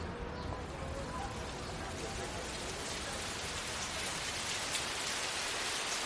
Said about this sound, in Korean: 몇 발자국 걷기도 전에 굵은 빗줄기가 쏟아지기 시작했다.